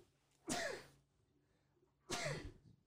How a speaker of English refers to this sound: Excuse me. Bless you.